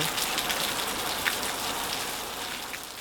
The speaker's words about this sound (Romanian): Ambianță ploaie.